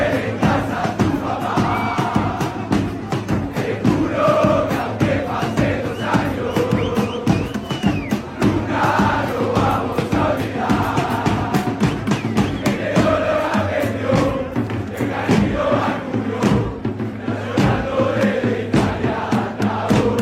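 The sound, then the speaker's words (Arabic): A huge crowd of Argentine football fans sings and chants together at the World Cup, loud and continuous, voices blending into a rousing, rhythmic roar with sharp percussive claps or drum hits throughout. “تتذكرون هذه الأغاني التي كنا نسمعها من الجماهير الأرجنتينية في كأس العالم والحديث عن الجماهير الأرجنتينية بالأمس حصدت لقب أفضل جمهور لعام 2022”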